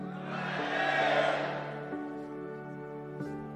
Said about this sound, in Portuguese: Vocês estão aqui mesmo? Estão aqui mesmo? Está aqui mesmo? Então dá um glória a Deus bem forte.